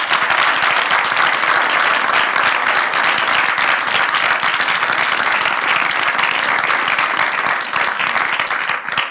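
Sustained, loud audience applause with many hands clapping in a dense, continuous wash, holding steady throughout before tapering slightly at the very end; no one speaks over it.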